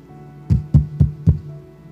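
Four quick, evenly spaced, loud knocks on a door, with a faint steady hum in the background and no one speaking.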